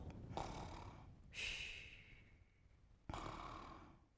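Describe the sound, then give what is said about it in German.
A voice imitates a snoring flea with three breathy, rasping snore sounds, each a drawn-out airy rush with gaps between, fairly loud, no words spoken. “Ich moderiere lieber als schnarchender Floh.”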